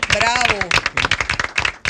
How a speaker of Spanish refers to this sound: Y hay dos personas claves también en este espacio que ustedes no me dejan mentir, que wow, son un aterrizaje también y un gran y fuerte abrazo y aplauso para ellos